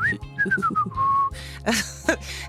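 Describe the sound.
A clear whistled Disney-style melody glides through a few sustained notes for about a second, then gives way to a burst of noisy background commotion with short harmonic calls.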